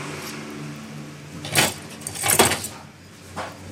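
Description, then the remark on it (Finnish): A sparse comb-like spatula is drawn from one end of a marbling bath to the other, mixing the paints into marbled patterns. It gives two short, rattly scraping bursts over a faint low hum, with no voices. “Vedän harvalla kampamaisella lastalla altaan päästä päähän.”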